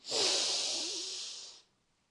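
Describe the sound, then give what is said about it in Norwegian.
A single long, deep breath drawn in through the nose as part of a calming breathing exercise, a steady airy hiss that swells quickly and holds for about a second and a half before stopping, clear with no talking. “Pust godt inn med nesa.”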